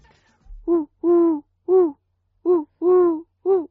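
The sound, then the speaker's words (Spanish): A person imitates the call of a perched collared dove with six close, hollow cooing hoots in a steady three-part rhythm, each note swelling and falling, repeated twice with a short pause between phrases. “No, pero es que yo soy, sé muy bien imitar a la turca. Esto que te he hecho, mira, esta es la Tortola turca parada.”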